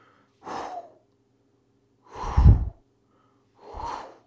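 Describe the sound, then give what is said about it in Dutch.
A voice imitates gusts of cold air from an oscillating fan swinging back and forth, with three breathy blowing sounds, each about half a second long and evenly spaced, the middle one strongest, with no other talk. “sorry die koude wind, zeg maar.”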